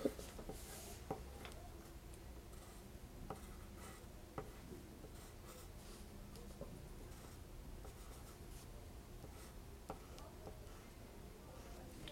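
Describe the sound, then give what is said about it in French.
Scratching of a pencil on paper as a person writes their own name on the turned-over sheet, with short strokes, light taps and pauses, quiet and steady over a faint hum. “Et si je tourne la feuille et que je te demande de m'écrire ton nom, est-ce que des fois tu écris ton nom sur tes dessins, des choses comme ça?”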